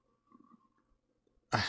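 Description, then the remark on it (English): A single sharp, loud cough bursts out after a stretch of quiet low rumbling and faint breathing. “I have to cough.”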